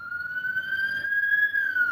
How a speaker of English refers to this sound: Hold on a second, siren.